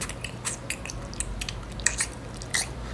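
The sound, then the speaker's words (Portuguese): A person imitates loud, noisy chewing with their mouth: a continuous run of wet smacking and crunching clicks at an irregular rhythm, with no talking. “A quarta coisa que me incomoda no quesito ba barulhos alimentícios é a pessoa que mastiga fazendo barulho.”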